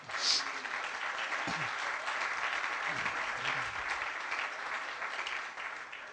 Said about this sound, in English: You may be seated, clapping your hands to the Lord.